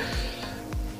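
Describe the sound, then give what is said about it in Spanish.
A quick, sharp sneeze bursts out, a short breathy hiss at the end of a second of muffled background noise. “Salud.”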